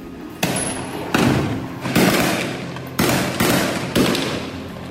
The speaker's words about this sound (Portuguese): No vídeo gravado por um morador, a gente ouve até as cápsulas disparadas caindo no chão.